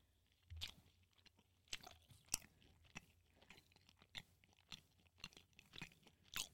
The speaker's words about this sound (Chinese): 我们现在听的是歪嘴鸡的咀嚼声。